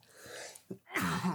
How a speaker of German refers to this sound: Jetzt habe ich einen Frosch im Hals. Gesundheit. Nee, nee, das ist ein Huster.